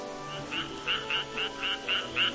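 Tree frogs croak in the rain in a quick, steady series of about eight short, bright calls, moderately loud, over a soft constant background wash with no one talking.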